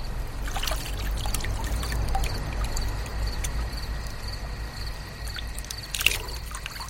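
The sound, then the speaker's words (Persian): Water is poured to wash hands and face, pouring and trickling steadily for several seconds, with a low rumble underneath and a few brief splashy bursts, one sharper near the end. No one speaks. “یه آبی بزنم دستورمون بشوره ببره”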